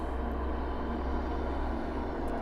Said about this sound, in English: I'm greeted by the noise of one of the things that happens in this area, and this is part of harvest. You can hear that in the background. There's a truck full of chopped hay, which technically is alfalfa.